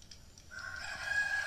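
A rooster crows once: after a brief, quiet moment, a loud, piercing call rises in and holds steady to the end, with no voices over it.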